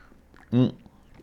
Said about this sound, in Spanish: No sin antes, por supuesto, el ya tradicional traguito a nuestro café